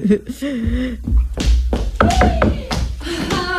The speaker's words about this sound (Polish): puka w rytmie czacza.